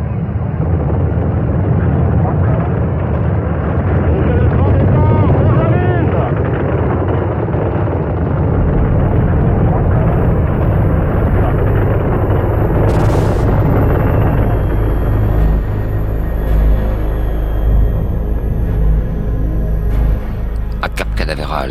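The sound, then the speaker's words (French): A massive rocket launch roar from the first-stage engines of Apollo 11 at liftoff, about 35,000 tonnes of thrust, rumbles continuously, deep and loud with crackling bursts, filling the whole stretch while muffled voices come and go over the din. “à 100 km à la ronde, la terre tremble sous les 35 000 tonnes de poussée des moteurs du premier étage et le ciel avale peu la fumée blanche de l'engin.”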